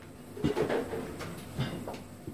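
An unremarkable door of a sex club on Görlitzer Straße in Berlin is unlocked with a thick bunch of keys and opened, with a few short metallic clicks and knocks followed by a soft creak and a final small thump.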